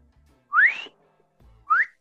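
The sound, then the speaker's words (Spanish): A person whistles two short upward-sliding notes, about a second apart, clear with no talking over them. “Porque sería un chiflido acá.”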